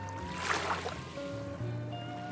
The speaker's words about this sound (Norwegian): Hører du det jeg hører? Ute der! Hva er den lyden? Å, herregud, en bølge. En skikkelig ille svær bølge også.